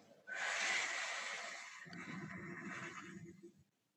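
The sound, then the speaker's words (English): A forceful, breathy whoosh of air pushed out through the mouth for a count of eight in a breathing exercise (in for four, hold for seven, out for eight), loud, starting sharply and trailing off over a few seconds with a rougher, lower rasp near the end. “then you forcefully exhale through your mouth making like a bit of a whoosh sound for eight.”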